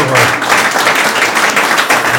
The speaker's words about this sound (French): Applaudissements du public